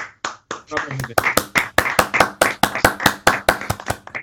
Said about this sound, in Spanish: Eh, hemos ganado esta batalla. Yo pido, pido un aplauso por estos gamers que hemos ganado una batalla.